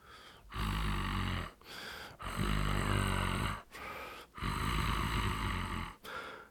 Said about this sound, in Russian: сиплый то ли рык, то ли вздох.